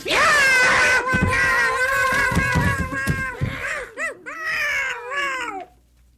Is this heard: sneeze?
no